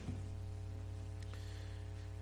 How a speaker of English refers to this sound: there is a sound dear brother. There's an echo. The feedback uh, as we study this portion.